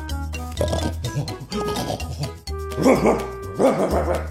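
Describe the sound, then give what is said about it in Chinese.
Nine big dogs wearing brass-studded collars bark loudly and repeatedly as they chase Snowball, their overlapping barks coming in quick bursts over a steady low rumble. “九条大狗紧追不舍，”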